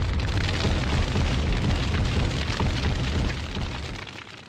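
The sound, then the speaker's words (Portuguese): A MOAB bomb explosion sound effect: a deep, sustained roar of rumbling blast noise, loud and dense throughout, slowly fading toward the end with no voices present. “Solta Moab Fogo no Muturo. Moab, Moab.”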